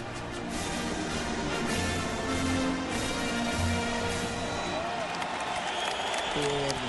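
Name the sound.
stadium crowd applauding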